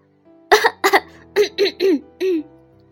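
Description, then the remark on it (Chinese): In a story reading, a voice clears its throat as the character A-Fo (阿佛) before standing on a stage, in six short bursts: two quick raspy ones, then four throaty, voiced grunts that slide down in pitch. Fairly loud, with nothing else behind it. “阿佛清了清嗓子，等了一会儿，然后就站在舞台上。”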